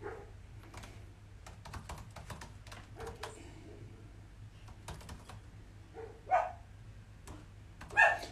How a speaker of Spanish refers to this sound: Si escuchan un ruido de un perrito, no se asusten, nadie está torturando a ningún cachorrito y mascota. Es mi, es mi, es mi regalón que está, por supuesto, acompañándome en esta nueva jornada.